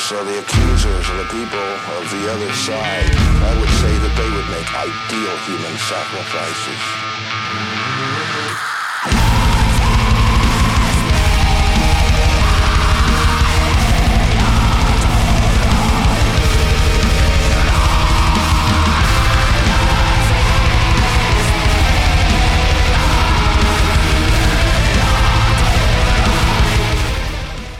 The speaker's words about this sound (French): vous ferez attention aux trills, et surtout à ce hurlement très primal et ces cœurs bluesy assez discrets juste avant l'explosion.